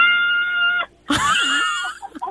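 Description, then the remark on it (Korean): A family riding in a car shouts a cheer over a phone line on a count of three: one long, steady high-pitched yell, a short break, then a louder burst of overlapping shrieks and wails that waver and fade out. “자, 모두 함성 소리 한번 질러보겠습니다.”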